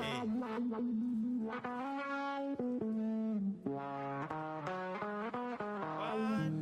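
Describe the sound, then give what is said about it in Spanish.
A bachata guitar melody run through an effects pedal, its notes smeared into sustained, buzzy tones that step up and down in pitch. It plays loud and steady throughout, with no voices. “Y un pedal de eso de guitarra que le parece y dice, ok, bachata, ponlo”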